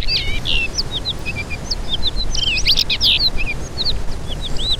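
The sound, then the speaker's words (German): A blue rock thrush sings a continuous string of bright, quick whistled and chirping phrases, fairly high-pitched and varied, over a steady low rumbling background noise. “Die Blaumerle wohnt in so steinigen, rockigen Gegenden, gerne auch mal so in Flusstälern und in wirklich verlassenen Dörfern und Städten kann sie auch so in Ruinen zum Beispiel wohnen.”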